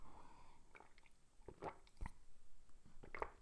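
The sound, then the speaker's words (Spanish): Someone takes a quiet sip of a drink, with a few soft, wet mouth clicks and a gulp spread over a few seconds, no talking. “Perdón, voy a echar un traguito que estoy seco.”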